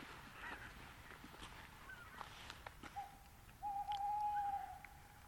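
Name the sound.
tawny owl hooting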